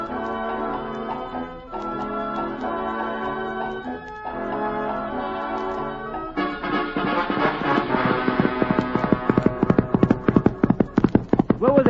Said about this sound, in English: the film begins as Texas Jack, our ruthless and yet beloved cowhand, rides up to the ranch on Reginald, the Wonder Horse.